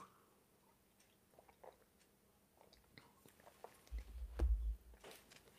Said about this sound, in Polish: I dostałem w prezencie właśnie ten kubek, który uznałem, że będzie moim kubkiem podróżnym, więc wszystkie recenzje na wyjezdnym będą e, właśnie z tym kubkiem. No i trzy łyki wody.